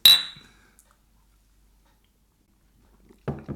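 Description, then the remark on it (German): A single bright clink of glasses touching in a toast rings out clearly and fades over a fraction of a second, followed by quiet, then a soft rustle near the end. “Und dann trinken wir nur noch. Und äh, hören dabei Musik. Okay, finde ich doch gut. Machen wir. Prost. Prost.”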